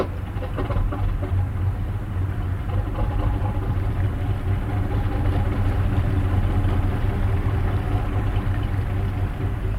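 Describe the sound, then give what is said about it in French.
A boat engine is started and idles steadily, a loud, low rumbling drone with a faint mechanical chatter that holds constant throughout, with no voices. “S'il n'y a pas trop de vent, on démarre le moteur et”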